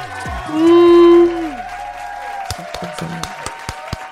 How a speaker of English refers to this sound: I was about to say you better clap.